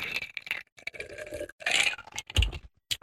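Ice cubes clink and rattle against a drinking glass in a few short bursts, fairly clear, with a brief low thump partway through and no talking.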